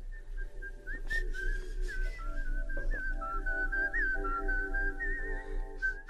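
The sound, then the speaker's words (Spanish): A person whistles a wavering melody along with the whistling tune from Kill Bill playing in the background, with sustained tones and a low bass pulse, the whistle blending closely with the music's own high line, no talking. “Ay, no sé en qué momento se fundió tu chiflido con el de la música.”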